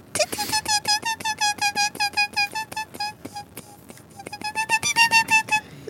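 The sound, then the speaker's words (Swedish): A voice imitates a squeaking car with a rapid, steady run of short, high-pitched squeaky chirps. It pauses briefly midway, then resumes slightly louder. “Eh, men, och jag vet inte om det har med det att göra men jag upptäckte att det gnisslar något väldans mycket.”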